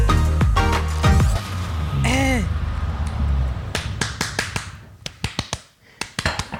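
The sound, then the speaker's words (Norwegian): A series of quick, sharp slaps as a person taps their own face to slap themselves awake, irregular and crisp, growing denser and louder in the second half, with brief vocal sounds early on. “Jeg bare banker meg litt i fjeset her.”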